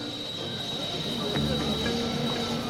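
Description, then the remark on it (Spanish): A New York City subway train rolls along the rails with a steady, heavy rumble and a thin high-pitched metallic whine running throughout, loud, with no one speaking. “Cuando el metro de la ciudad de Nueva York comenzó a funcionar en 1904, era una maravilla de la era moderna.”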